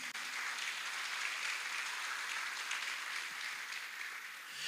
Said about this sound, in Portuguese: Um aplauso bem forte a Jesus.